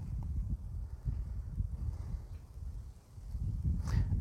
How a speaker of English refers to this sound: just sitting on a bench here at the park and hearing the birds and just staring at the beautiful landscape.